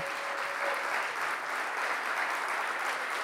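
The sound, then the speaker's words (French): Sustained applause from a crowd clapping for the mothers standing up, a dense steady wash of clapping that holds at an even, fairly loud level throughout with no voices rising above it. “Est-ce qu'on peut les applaudir?”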